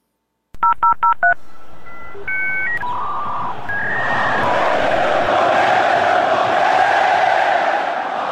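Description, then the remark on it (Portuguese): A short jingle opens with a quick burst of telephone keypad tones, then a few stepped electronic beeps rise over a loud, swelling crowd roar that fills the rest. “fiquem aí para ouvir o restante do programa logo após a vinheta.”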